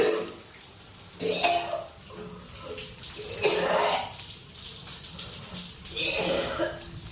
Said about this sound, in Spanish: Después, se da una ducha.